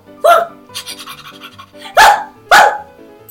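A dog barks three times, loud and close, with the first bark standing apart and the last two coming in quick succession, while quieter breathy panting fills the gaps between them.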